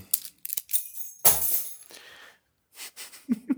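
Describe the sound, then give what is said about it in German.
Keys jingle and clink in a series of short metallic bursts as they are taken off, with a brief pause before a few more rattles near the end. No one speaks. “Ähm, oh, mein Schlüssel muss ich noch abmachen.”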